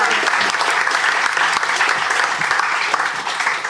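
A sustained round of applause for two participants at the end of a round, dense and steady clapping from many hands at a fairly loud, even level throughout, with no voices standing out.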